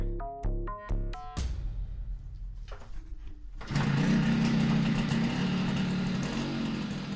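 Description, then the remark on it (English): A dirt bike engine blips in a few short, sharp revs, goes quieter, then roars into a loud, steady, buzzing run. “Uh, so I went out and bought a brand new dirt bike so I could just start doing the logging roads.”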